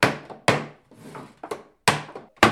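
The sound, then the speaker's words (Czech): Loud wooden knocks as a wooden hoop is hammered onto a wooden tub in a cooper's workshop: about five sharp blows at an uneven pace, with a softer scraping thud between them and no talking. “Tohle to je klasický zvuk, který vydává vlastně na tloukání té dřevěné obruče.”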